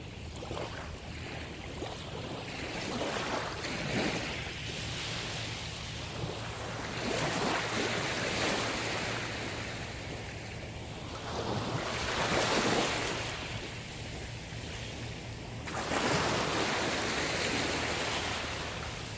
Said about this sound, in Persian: همون لحظه تو کل سیاه چاله از تمام اسپیکرها صدای امواج دریا شروع شد به پخش شدن